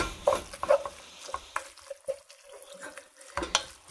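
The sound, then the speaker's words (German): A spoon scrapes and stirs tuna into food in a hot pan, with a steady background sizzle and intermittent clinks and scraping strokes, moderately loud, no talking. “So, ich mache das jetzt mal aus. Misch den Thunfisch da drunter.”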